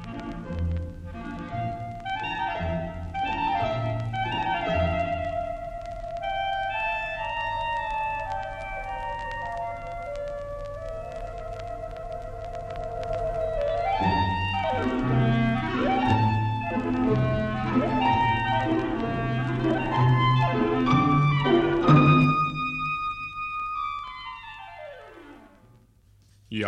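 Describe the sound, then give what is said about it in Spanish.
Clarinets, woodwind instruments, play quick, agile runs that climb and tumble through the melody, with a sustained middle stretch and a final note sliding down. The music is moderately loud and without voices. “Son muy ágiles los clarinetes de la familia de las maderas. Escuchen cómo suben y bajan con rapidez.”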